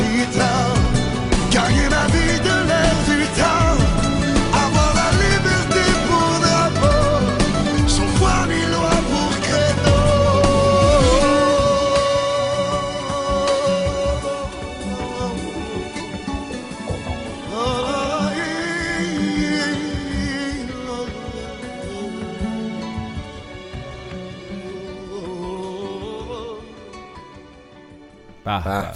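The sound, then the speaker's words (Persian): A light pop song plays steadily, with a sung vocal melody over full instrumental backing, holding an even level throughout before easing off slightly near the end. “دیدی صدا رو البته یکی از ترانه های لایتش بود اگه بگردین ترانه زیاد داره”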